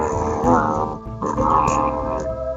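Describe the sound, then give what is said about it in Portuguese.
A loud growling in two long, rough, sustained bursts with a brief pause between them, a human voice imitating a snarling werewolf. “Aí lá, tá ouvindo isso aí, né? Isso é o lobisomem.”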